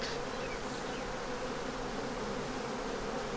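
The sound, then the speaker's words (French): A dense, steady hum of many honeybees buzzing around a beekeeper, a continuous swarm-like drone with no pauses and no voices. “qui est embêtant dans l'essaimage, bon déjà, euh, il y a la reine qui part, mais il y a beaucoup d'abeilles qui partent.”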